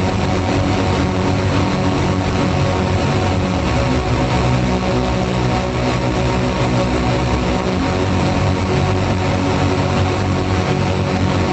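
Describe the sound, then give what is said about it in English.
A dense, continuous drone of several propeller airplanes overhead, loud and steady for the whole stretch, with a deep rumbling engine hum and no voices. “Circling around my destination, a swarm of planes over a central sore trapped in the dream of flight.”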